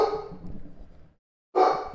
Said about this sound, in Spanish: mi perro está ladrando, perdón.